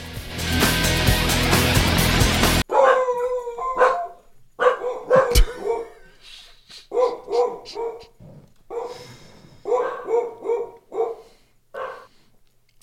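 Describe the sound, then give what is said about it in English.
A dog on a bed barks repeatedly and loudly, in uneven bursts of sharp, yappy barks with brief pauses, following a short burst of dense, noisy sound at the start. “The dog is now on the bed.”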